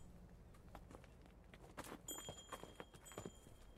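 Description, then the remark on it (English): A string of ponies clops steadily up a steep, narrow rocky mountain track, an uneven overlapping rhythm of several animals, with thin, high bells ringing partway through. No one speaks. “Bells ding, hooves cobble, a string of ponies move up the steep, narrow track.”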